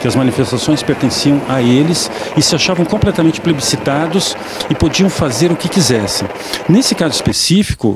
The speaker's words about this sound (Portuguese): o som que você ouviu no meio do áudio é um helicóptero sobrevoando a manifestação